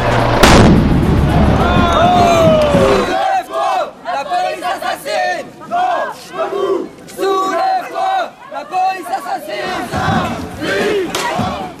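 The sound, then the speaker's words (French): A large crowd shouts and chants in a chaotic riot in Nantes, with heavy booming blasts and bangs at the start, then loud overlapping yelling throughout. “Visiter Nantes, son muscadet, ses émeutes.”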